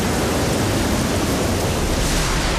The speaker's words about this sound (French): Hier, grand orage en région parisienne.